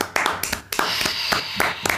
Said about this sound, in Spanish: Espérate, un aplauso. Así los aplausos del equipo que está atrás.